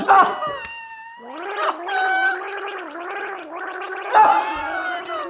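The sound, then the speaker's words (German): A person gargles loudly and continuously for several seconds, the bubbling voiced rattle rising and falling in pitch, imitating the churning of a running dishwasher. “Das, das ist meine Spülmaschine.”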